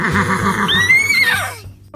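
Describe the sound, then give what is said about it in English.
A horse, one of two horses named Wesley and Buttercup, neighs loudly, a long whinny with a rising, quavering pitch that rises to a shrill peak before trailing off, followed by a brief snort. “You are the first horses who have ever sat in, well, stood in for a story.”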